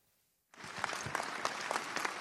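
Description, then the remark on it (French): Applause at an emotional support rally of several dozen people on the forecourt of a town hall breaks out suddenly after a brief silence, a dense, steady clatter of many hands clapping with scattered sharper claps, loud and sustained to the end. “Des applaudissements pour un rassemblement chargé en émotions.”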